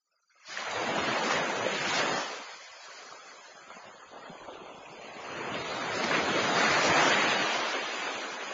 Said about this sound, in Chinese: 巴特里清楚的记得。在帆船落水的那一刻，四周海浪翻滚，发出一种可怕的轰鸣。他觉得这是鲸尾拍打水面发出的声音。